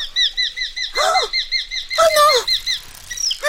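Shrill, rapid falcon cries repeat in a steady chattering rhythm, loud, broken by two bursts of whooshing wingbeats mid-way.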